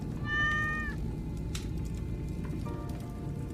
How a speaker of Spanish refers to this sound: Ay, estos gatos.